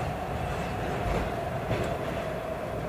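A train carriage rumbles steadily along the rails, a continuous low roar with faint rattling and a slight swell midway, heard from inside, with no one speaking.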